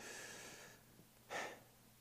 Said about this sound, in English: sometimes it's just good to take a deep breath, right? Mm, fresh air in the morning, that's my, that's my favorite kind of breathing.